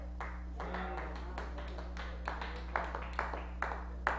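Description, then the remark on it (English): Sparse, half-hearted clapping from a small audience: a few scattered, uneven hand claps at a modest level over a steady low hum, with no talking. “That's the weakest clap for the most truth you've heard today.”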